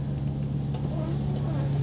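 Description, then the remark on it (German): The refrigeration unit of a hydrogen-powered truck carrying chilled goods hums with a steady, low mechanical drone that stays constant and fairly loud throughout, with faint talking just audible underneath. “Und das, was jetzt so brummt, das ist das Kühlgerät.”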